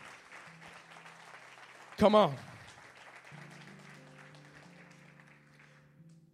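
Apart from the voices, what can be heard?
audience applauding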